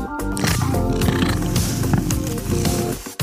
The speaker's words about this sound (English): My cat just walked into the studio and he brushed by the microphone. let's see if we can hear him purring.